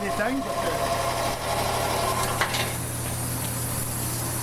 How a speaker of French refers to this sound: Là, on, entend les, moteurs euh, finalement qui permettent à l'eau d'arriver des tubulures, c'est ça? Exactement. C'est une pompe à vacuum.